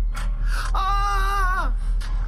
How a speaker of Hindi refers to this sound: डर के मारे दिव्या की चीख निकल गई